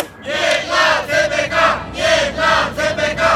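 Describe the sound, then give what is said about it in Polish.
Dozens of protesters chant against construction of a high-speed railway in the market square in Katowice on 5 December at 9:55, in rhythmic, repeated bursts, many voices shouting together in a steady pulsing cadence, loud. “Na rynku kilkadziesiąt osób protestowało przeciwko budowie kolei dużych prędkości.”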